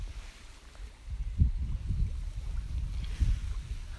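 Gentle water of Lake Shikaribetsu lapping against a shore or hull in soft, irregular pulses, with a low rumble of wind blowing across the microphone throughout; no voices.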